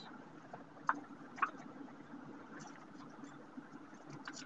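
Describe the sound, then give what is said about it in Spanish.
A steady, low droning rumble of a car engine heard from inside the cabin while driving, continuous and even, with two brief faint clicks early on and no one talking. “No, estoy viajando en un auto con auriculares.”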